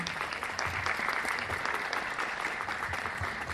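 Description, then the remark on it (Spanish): Steady, dense applause from a crowd welcoming Ana Carolina Vergón, a communication and language specialist being introduced as a speaker, many hands clapping continuously at an even loudness throughout, with no voices standing out. “Un fuerte aplauso para Ana Carolina Vergón.”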